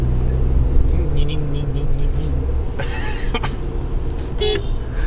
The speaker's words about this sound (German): Irgendjemand wundert sich jetzt gerade. Warum hat der gehupt? Ich mach doch alles richtig.